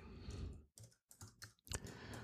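Quick bursts of keystrokes on a computer keyboard, several clustered taps separated by brief pauses, fairly quiet with no talking. Someone is typing a first name into a search in a lab report registry.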